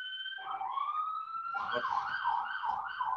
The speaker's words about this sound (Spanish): y pasa lo del hospital, que empiezan a sonar sirenas afuera. Perdón, eh, perdón, de repente se iban a escuchar así como los ruidos de fuera.